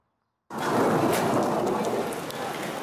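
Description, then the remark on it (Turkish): Steady, heavy rain in Düzce begins abruptly after a moment of silence, a dense hiss of pattering drops that continues evenly to the end. “Dün etkili olan yağmur Düzce'de yolları göle çevirdi.”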